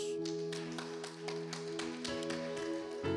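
An audience applauds the Lord God during a sermon, a steady patter of overlapping claps lasting a few seconds over a sustained low musical drone, growing slightly louder at the end.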